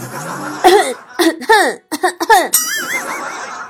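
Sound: repeated coughing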